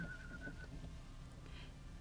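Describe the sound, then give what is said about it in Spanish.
A short, thin whistled melody of a few notes plays for under a second, then fades into a low, steady background rumble. No one speaks. “a Ratita le gustó muchísimo cómo silbaba y llevaba el compás con la colita”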